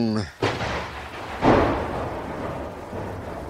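A sharp, loud thunderclap cracks, followed by a second booming burst and a long rumbling roll that fades out slowly, during a heavy downpour of rain.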